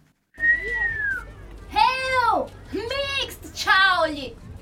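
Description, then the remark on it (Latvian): A person whistles up close: a clear falling whistle, then three shorter swooping calls, some with a voiced, hummed edge, as if a voice is imitating the whistle. “Jau nākamajā mirklī mēs ar komatu sev par nožēlu dzirdējām pogu nosvilpjam.”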